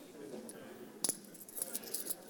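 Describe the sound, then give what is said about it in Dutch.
An assortment of coins being handled, including one that seems to bear a cross: one sharp metallic clink, then a quick cluster of lighter clinks and jingles over a quiet background. “Ja, ik heb hier ook van alles. Ik heb er ook eentje met een soort met van lijkt wel een kruis.”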